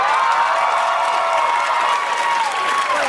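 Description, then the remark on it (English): A Saturday Night Live studio audience bursts into sustained applause with scattered cheers and whoops during the host's opening monologue, a dense, steady wash of clapping that holds at full loudness for the whole few seconds. “y'all really clapped.”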